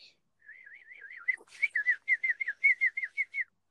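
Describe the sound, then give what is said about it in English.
A person whistles in imitation of a birdcall: a wavering warble followed by a quick series of about ten bright, evenly spaced chirps, fairly loud, with no talking. “Um, when I'm bored, I kind of whistle like a bird, like this.”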